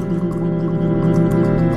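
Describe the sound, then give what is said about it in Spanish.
Water bubbles in a glass as a person blows through it with their lips, playing the glass of water as a musical instrument, making a loud, continuous gurgling drone with a pitched, musical tone, without any talking. “Con, sus labios y con agua. Una persona que dice un vaso con agua es un instrumento de música, ¿ok?”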